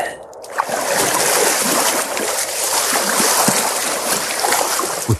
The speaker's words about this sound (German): Wir hören es uns nochmal an. Und es war ein Schwimmgeräusch. Ja, so hört sich's an, wenn ihr schwimmt, aber nicht, wenn ihr selber euch hört